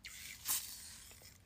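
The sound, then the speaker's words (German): A single quick hiss from a large lime facial water mist spray bottle, a short airy burst against a quiet background, with faint rustling around it. “Jetzt nehme ich mein Wasserspray Acha Limette.”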